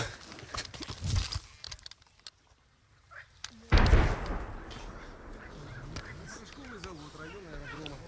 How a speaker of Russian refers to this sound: вы слышите, до сих пор проходят разрывы обстреливается территория населенного пункта Кировск. Но ну, это те прилеты, вот как раз те снаряды, которые прилетели около скольки, десяти, по-моему.